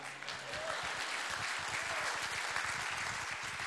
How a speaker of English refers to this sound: Thank you, People's Church, for your heart for the world. Somebody give me a clap.